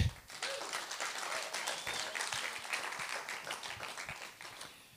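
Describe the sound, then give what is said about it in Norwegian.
An audience at Justnes misjonskirke church applauds steadily for about five seconds after the group's worship singing, a dense wash of many hands clapping at even loudness before tapering off slightly at the end. “Jeg kan vi ikke gi det en applaus?”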